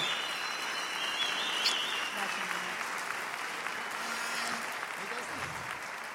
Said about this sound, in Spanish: Y yo quiero que reciban con un fortísimo aplauso a mi bella esposa